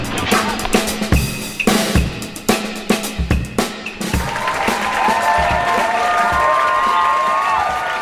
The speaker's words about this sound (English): Please, please, ladies and gentlemen, please hold your applause. I know you're excited.